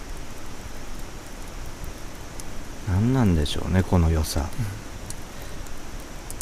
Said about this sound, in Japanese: 焚き火の音を皆さんに伝えるためにねマイクをたくさん用意してお届けしてるので 少しでもねこの雰囲気が皆さんに届けばすごく嬉しいなと